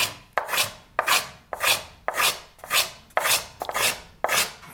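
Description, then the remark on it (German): A small hand plane shaving wood in repeated strokes, about eight rhythmic swishing passes, each a bright, airy rasp that swells and fades, with no talking; the bright sound comes from planing along the grain of the wood. “Und man hört ganz schön am Hobel den Faserverlauf des Holzes.”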